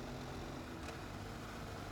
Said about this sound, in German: Also ich mag das Motorrad hier wirklich sehr.